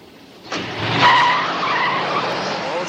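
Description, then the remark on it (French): A car takes off abruptly: a sudden burst of engine noise, then a brief high tire squeal as it accelerates, followed by a steady loud roar that continues to the end. No talking. “Non Je vais démarrer, Rose Non”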